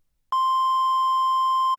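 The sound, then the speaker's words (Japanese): A single steady electronic beep, a pure tone held for about a second and a half after a moment of silence, loud and clear with no voices, like the tone before an answering machine records a message. “留守番電話が入ってるよ”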